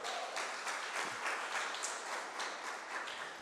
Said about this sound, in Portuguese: Se você crê nisso, aplauda Jesus.